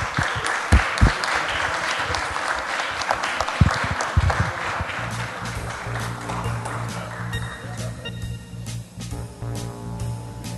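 An audience bursts into sustained, loud applause thanking the presenters at a craft beer event, dense clapping, while steady background music rises underneath and carries on as the clapping continues.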